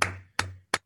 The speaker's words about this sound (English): And if you're wondering what that noise is, that's me clapping my hands